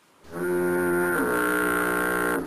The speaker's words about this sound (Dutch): In de verte loeide plots een misthoorn.